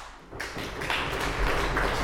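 A crowd breaks into applause, a dense wash of many hands clapping that swells quickly after a brief quiet moment and carries on steadily at moderate volume.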